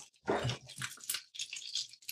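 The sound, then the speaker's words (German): Crumbly dough of semolina and milk being rubbed (riebeln) and stirred in a frying pan, giving soft, irregular crunching and scraping bursts with hissy texture, in uneven pulses over a couple of seconds, with no talking. “schön in der Pfanne geriebelt. Mein erstes Mal Riebeln. Oh ja, hört man schon.”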